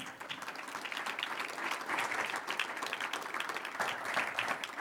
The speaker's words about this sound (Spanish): Un aplauso a Él.